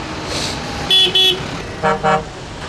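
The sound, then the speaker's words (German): A lit-up truck carrying a container passes and sounds its horn in two quick double honks, loud, over a steady background of engine and road rumble. “Der kommt hier mit dem LKW durchgefahren.”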